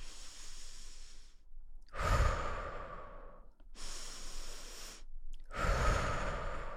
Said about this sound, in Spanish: Entonces, dos minutos de respiraciones profundas, algo así como...